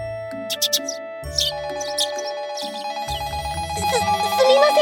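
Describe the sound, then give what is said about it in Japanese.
A telephone rings with a bright electronic ringtone, a looping melodic jingle of layered tones that plays continuously and fairly loudly for several seconds, with no one speaking over it. “他の電話を取らなきゃなんで一旦失礼しますにゃん”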